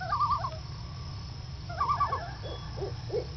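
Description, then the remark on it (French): An owl calls twice in quick, wavering hooting phrases, followed by two shorter single notes, heard clearly over a steady low rumble of background noise with no one speaking. “Tu n'es pas Clara, toi Tu es un oiseau de nuit.”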